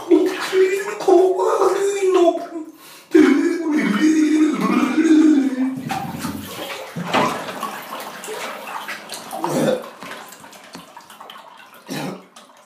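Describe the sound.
A voice sings a tune while nearly drowning in bathwater, gurgling, bubbling and sputtering in a bathtub with splashes, the melody warbling unsteadily in wet, muffled bursts before trailing off.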